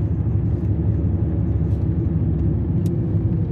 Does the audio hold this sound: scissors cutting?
no